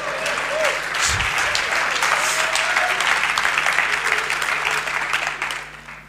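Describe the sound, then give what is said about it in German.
A church audience claps steadily for several seconds during a service, answering the preacher's call to say amen and clap: a dense wash of many hands with scattered voices calling out, the applause tapering off at the end. “Sag doch mal Amen und klatsch oder mach irgendwas damit, ja?”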